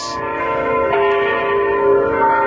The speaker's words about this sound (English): I love the sound of church bells.